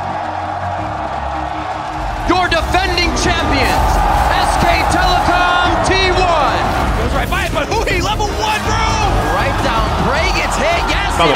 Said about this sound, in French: Et merci, si... pour le jingle, surtout.